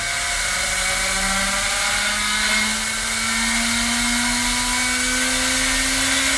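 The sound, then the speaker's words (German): A compressed-air drill runs continuously, a loud, steady hissing whine whose motor tone slowly climbs in pitch, with no voices over it. “So, jetzt haben wir für, den, für die Bohrmaschine die Luft aufgegeben.”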